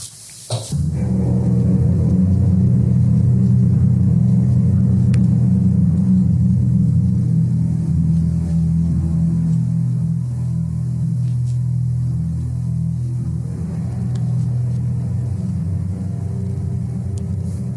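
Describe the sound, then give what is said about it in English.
A deep, ominous rumble from a radio spot for a sci-fi horror movie drones steadily and loudly for nearly eighteen seconds, a dark low hum that swells slightly near the end, with no voices over it. “we're going to listen to the radio spot for Alien”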